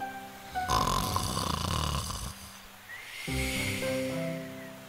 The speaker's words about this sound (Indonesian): Kemudian mereka melihat serigala tidur di bawah pohon. Serigala mendengkur keras sehingga membuat cabang pohon bergoyang.